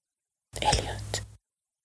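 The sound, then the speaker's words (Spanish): A brief, breathy whispered murmur sounds close up near a person's right ear, lasting under a second and fading abruptly into silence, with a faint low hum beneath it. “Un murmullo se escuchó cerca del oído derecho de Elliot.”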